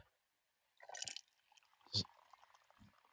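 Coffee pours from a Tiger thermos flask in a short gurgling, splashing burst, followed by a sharp clink and quieter liquid trickles and small handling sounds.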